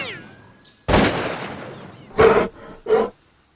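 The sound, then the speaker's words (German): A loud, sudden burst that fades out, followed by two short, harsh bear roars in close succession, each loud, with no talking. “Oh, ein Schadbär? Problembär. Nein, nein, ein Problembär!”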